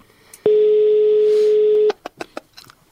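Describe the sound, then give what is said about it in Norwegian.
A phone ringback tone sounds once as a steady, fairly loud buzzing hum lasting over a second, then cuts off into a few quick sharp clicks with no answer and no voices. “Det var ikke rart det ikke blir tatt noen telefon her.”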